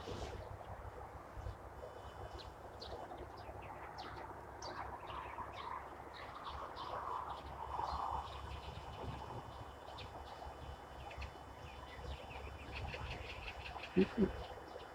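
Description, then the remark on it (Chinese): Many birds call in an overlapping chorus of short, high chirps and whistles at 4:30 a.m., just after daybreak, during birdwatching, heard over a steady low rumble of wind or an engine. A couple of sharper knocks sound near the end. “早上4:30，天刚亮，就出来观鸟了。早起的鸟有虫吃，早起的观鸟人有鸟看。”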